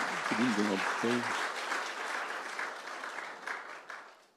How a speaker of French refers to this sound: Est-ce qu'on peut applaudir le Seigneur Amen.